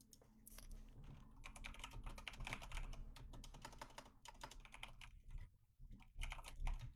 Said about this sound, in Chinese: 你听出来我这是什么键盘了吗？世世界最厉害的一个游戏键盘，嘿嘿，限量款的，世界上总共两个